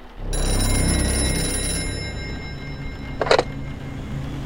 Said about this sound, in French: Le téléphone sonne.